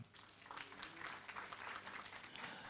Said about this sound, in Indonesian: Amin. Amin. Tepuk tangan bagi Tuhan.